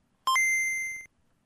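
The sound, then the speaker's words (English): A single bright electronic notification chime from a Game Boy handheld game console, a short higher blip jumping into a sustained pure tone that rings for most of a second before cutting off, clear with no talking. “before you get before you get a chance to finish that sentence, you hear a, a ding from your Game Boy.”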